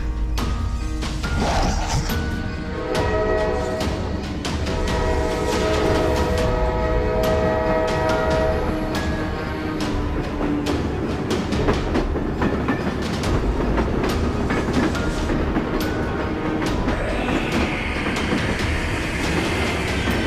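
A train, the 12:05 AM train, rumbles past, its horn blaring a long sustained chord for the first several seconds while steady metallic wheel clatter and clanks continue throughout.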